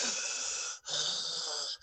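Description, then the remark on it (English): A voice imitates the slow, heavy, eerie breathing from a movie: two long, raspy breaths with a short pause between them, fairly loud, with no talking. “And then it like there's one part I can't remember where, but like it goes from like the creepy eerie breathing into dance breathing, and I was like, oh my god, they're the same.”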